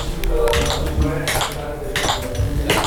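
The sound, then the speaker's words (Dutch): Tap shoes worn by a performer clicking on a floor in Frascati 2 before a first run-through: a series of sharp, bright metallic taps in an irregular rhythm, some in quick clusters, fairly loud over a low background rumble. “En ik heb tapschoenen aan. Dat hoor je.”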